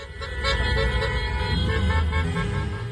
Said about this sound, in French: ce qu'on entend, c'est le concert de Klaxon qui a salué à Bakou la réélection triomphale d'Ilham Aliyev